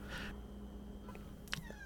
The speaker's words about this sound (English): Oh, did you hear a little kitty there? No, I didn't. Okay. She's just hanging out in the room.